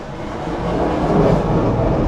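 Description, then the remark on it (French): A small airplane drones overhead, a steady, rumbling engine roar that swells slightly louder partway through and holds, with no voices over it. “Petit avion.”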